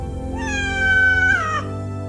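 A cat gives one long, drawn-out meow, a high, nasal cry that holds steady and then bends downward at the end. No one speaks, and a faint low hum runs beneath it.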